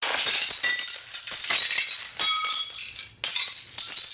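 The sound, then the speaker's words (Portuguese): Glass shattering in a sustained crash, with bright tinkling shards and repeated bursts of breaking and clinking over a few seconds, loud, with no voices. “Um vidro que se partiu.”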